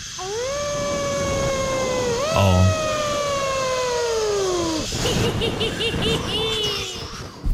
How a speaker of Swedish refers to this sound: Och då vill jag spela upp hur det här spökljudet som man ska lyssna efter mm. låter.